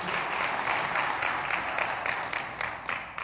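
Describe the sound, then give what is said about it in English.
A church audience applauds the whole team as a 'clap offering', a dense, steady wash of many hands clapping together that holds for several seconds and eases off slightly toward the end, with no voices over it. “Yeah, let's give the whole team a, a clap offering.”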